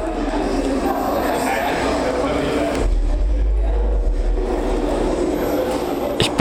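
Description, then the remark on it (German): In the foyer of a cultural venue in Freiburg, Germany, during a culture night, synthesizers make a loud, dull electronic drone that rumbles continuously with a heavy low end. Dense noisy texture and faint, thin, high-pitched synthesizer beeps lie over it, while a murmur of voices sits underneath. “Es herrscht ein großer Lärm vom stumpfen Dröhnen und scharfen Piepen von Synthesizern.”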